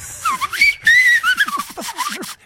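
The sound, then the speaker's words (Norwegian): A whistle is blown, its pitch sliding up and down in a quick, wavering run of warbling tones that lasts a couple of seconds, fairly loud, with no talking. “Du har en slags fløyte.”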